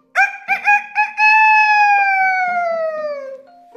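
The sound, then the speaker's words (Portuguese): A rooster crows loudly, a few quick choppy notes rising into one long, drawn-out call that slowly falls in pitch before trailing off. “O pato seguiu sua caminhada e encontrou um galo que cantava alto e forte.”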